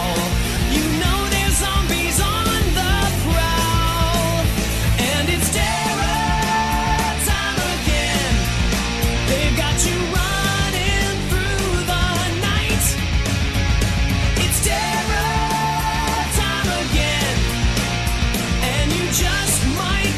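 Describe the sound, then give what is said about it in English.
A loud, dense rock song blending punk energy with hair-metal flash: driving drums, distorted guitars and a high, strained vocal line, playing steadily throughout. “It's like a weird combination of punk and hair metal.”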